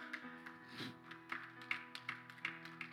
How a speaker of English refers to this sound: Thank y'all for that Baptist applause right there.